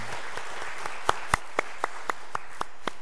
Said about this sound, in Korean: 우리 장로님께 우리 감사의 박수 한번 좀 드리면 좋겠습니다.